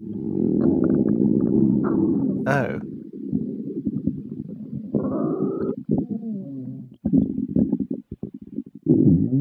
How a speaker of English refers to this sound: It is a stomach gurgling.